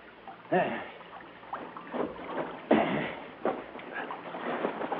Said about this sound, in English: As we slid the boat up on it. Ah, there we are.